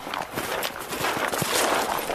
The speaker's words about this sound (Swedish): Okej, okay, nu kommer som en riddare på häst här.